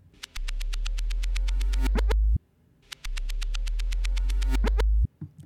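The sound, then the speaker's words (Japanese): A reversed synth C note played twice: each time a deep, buzzy tone swells louder over about two seconds, then cuts off abruptly, with a short silence between. “えー、もう一回いきます逆再生したらこんな音になるんですよねもう一回いきます”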